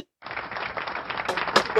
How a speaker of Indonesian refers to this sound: Ini tepuk tangan, tepuk tangan, tepuk tangan.